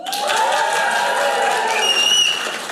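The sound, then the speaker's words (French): A crowd applauds and cheers loudly when people from Montréal are asked to applaud, with steady clapping and whoops and high-pitched shouts rising over it, a lively crowd. “Par applaudissement, du monde de Montréal?”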